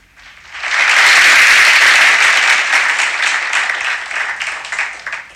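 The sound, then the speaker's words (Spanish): A crowd bursts into sustained applause for the bronze medallist in uphill vertical at the 2022 World Championship in Thailand, dense and loud from the start, holding steady for several seconds before gradually thinning toward the end. No one speaks. “Aplausos para el medallista de bronce del Mundial Tailandia 2022 en uphill, la vertical.”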